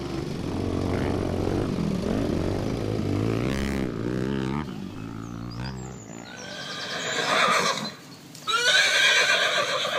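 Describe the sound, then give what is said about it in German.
A snow-white Arabian stallion, as its rider puts his foot in the stirrup of the saddle, lets out a loud, drawn-out whinny with a shaking, wavering pitch over a low rumbling background, followed by breathy snorting and rustling noises. “Der schneeweiße Araberhengst mit den großen Nüstern, kleinen Ohren und hochstehendem Schweif ist ein Prachtexemplar arabischer Pferdezucht”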